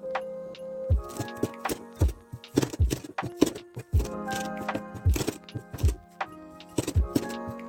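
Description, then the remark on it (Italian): Parsley being finely chopped with a mezzaluna: a steady, fairly quick series of sharp knocking thuds on a board, roughly one or two per second, over a soft tonal musical background. “Ecco qua, il prezzemolo è finemente tritato”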